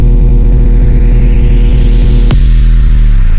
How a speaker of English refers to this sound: The 808 bass drum is that booming low boom